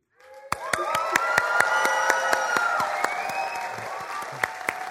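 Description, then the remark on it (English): An audience breaks into loud, sustained applause and cheering as a couple married 51 years unite the unity candle, with sharp individual claps standing out above the broad roar of the crowd, celebratory. “And usually you don't applaud, uh, do loud applause during the unity candle part, but when they unite the candle, let's make a lot of noise like we're celebrating their wedding.”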